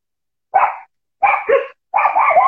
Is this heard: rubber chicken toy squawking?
no